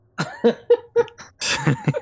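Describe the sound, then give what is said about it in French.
A voice performs the rough, choking coughs of a giant, Ragot, who chokes and coughs out what seems like sand: several short strained bursts followed by a louder, breathy rasping hack, fairly loud with no speech. “Vous voyez, puis vous voyez qu'il s'étouffe, puis quand il tousse, c'est genre du sable qui sort de sa bouche.”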